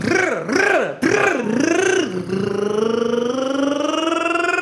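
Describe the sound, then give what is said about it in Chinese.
A voice imitates a motorcycle engine: a buzzing, rumbly tone that wobbles up and down in several quick revs, then settles into a long, steadily rising drone, loud throughout. “我一见面，他们就跑过来，然后拧着我的耳朵就说：“来，给我模仿个摩托车，是吧？”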